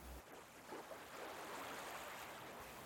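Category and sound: nature, ocean waves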